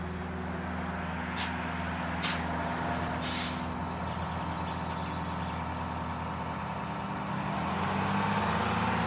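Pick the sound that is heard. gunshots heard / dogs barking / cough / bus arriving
bus arriving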